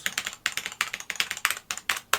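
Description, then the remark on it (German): Rapid clicky keystrokes from a Cherry G80 mechanical computer keyboard held on the lap, typed in quick irregular bursts, with no voices. “Ich habe sie hier mal auf dem Schoß.”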